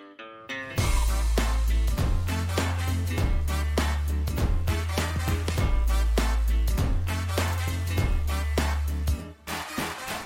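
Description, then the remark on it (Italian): A short, punchy instrumental theme jingle with a driving beat and heavy sustained bass notes plays loudly for several seconds, then cuts off abruptly. No one speaks over it. “E sigla.”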